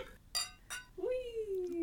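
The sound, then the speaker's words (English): Two bright, ringing clinks of glasses of a cava drink touching in quick succession in a toast, followed by a person speaking briefly. “Cheers.”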